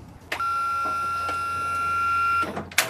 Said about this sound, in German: Der bereitet gerade hier die Rampe vor für den Rollstuhl, mit deren Hilfe unser Fahrgast jetzt gleich hinaufgehieft wird in den Bus.